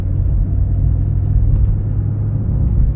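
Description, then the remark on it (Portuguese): A small Chevrolet Celta car drives along a long straight road with a steady low engine rumble and road noise, constant throughout, with no voices. “Que o Celtinha aqui é brabo, irmão.”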